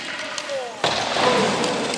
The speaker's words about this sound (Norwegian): Her er lyden av en A-landslagsspiller som ikke rekker frem i tide og lyden av en A-landslagsspiller som velter og blir liggende.